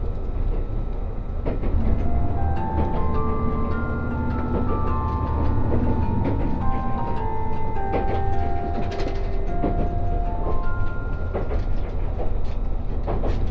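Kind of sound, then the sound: vehicle, train running on rails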